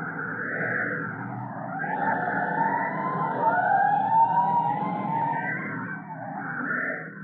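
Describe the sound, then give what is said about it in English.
A fire engine siren wails continuously as it responds to a five-alarm fire, its pitch sweeping up and down in long rising and falling cycles over a low rumbling engine, loud and steady throughout with no voices. “Attention all districts. A five alarm fire. Hard bells. Move in immediately.”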